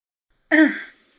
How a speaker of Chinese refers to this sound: 轻轻咳嗽了一声，掩饰脸上的尴尬。